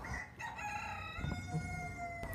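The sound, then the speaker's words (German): A rooster crows one long, drawn-out cock-a-doodle-doo, loud, with no voices over it and only faint background noise beneath. “Ein schwedischer Spruch zu Ostern lautet auch, ich glaube, mein Hahn pfeift.”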